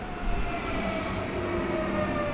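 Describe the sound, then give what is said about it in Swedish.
Steady rumble of a train from Stockholm arriving at a central station, with faint sustained metallic whining tones riding over the low roar. No voices; the noise stays level throughout. “Nu är jag på Centralen och ska alldeles strax möta upp”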